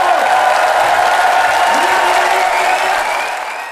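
An audience of 500 at the Beatrix Theater in Utrecht breaks into sustained opening applause for a show by comedian Guido Weijers, a dense, steady wash of clapping that stays loud throughout and eases off slightly at the end, with faint crowd voices mixed in.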